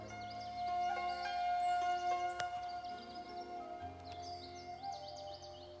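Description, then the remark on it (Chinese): Sparrows and light-vented bulbuls in a tree in a small courtyard call in quick, high chirps and short twittering phrases, repeating throughout over a steady low hum, with no one talking. “今天飞到树上的这几只都是麻雀，还有白头鹎，没有其他的那些比较这段时间在这个小院里比较多的这种小鸟。”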